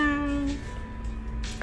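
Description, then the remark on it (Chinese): A single drawn-out cat meow, bright and tonal, holding steady for about half a second before breaking off, followed by quiet background noise and a faint brief rustle. “哦，我只是一只很普通的小猫哦”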